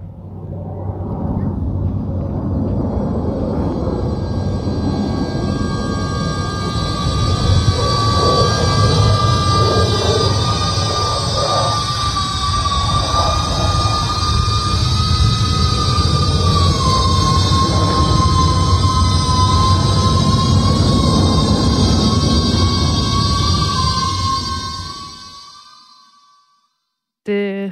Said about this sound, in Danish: Lad os lige øh, høre øh, et rigtigt øh, F-16-fly fra øh, Kaup.